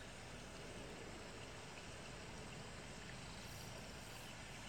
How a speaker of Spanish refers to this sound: Me encanta este, este, sonido de fondo, ¿eh? Una catarata, una cascada.